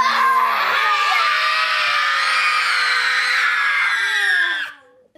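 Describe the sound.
A group of children roars loudly together in one long, sustained shout, many voices overlapping in a bright, harmonic din that holds steady for several seconds before cutting off abruptly.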